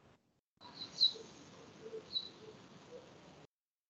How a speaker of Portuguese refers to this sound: está tendo um barulho aí de passarinho e criança. É, daqui é o povo aqui na, no prédio.